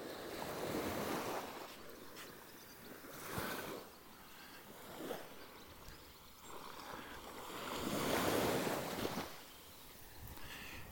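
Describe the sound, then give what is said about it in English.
Waves break on the beach at Filey, a small resort just south of Scarborough, in repeated washes, swelling and hissing every few seconds before fading back, with a steady rush of surf underneath and some wind buffeting. “It's Thursday, and I'm walking along um, the beach at Filey, um, which is a, a small resort just south of Scarborough, kind of a little gem of a, a resort just south of Scarborough.”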